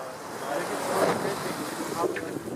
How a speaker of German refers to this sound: die Wellen schlagen leicht ans Boot, das Boot schaukelt von links nach rechts.